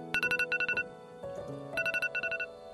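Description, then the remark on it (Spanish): A morning wake-up alarm, an electronic tone, rings in quick bursts of four rapid beeps, repeating in a steady pattern over a sustained musical backdrop, clear. “Y cuando suena la alarma”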